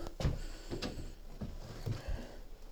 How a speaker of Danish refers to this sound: Gå ud af entréen her. Lukker døren efter mig.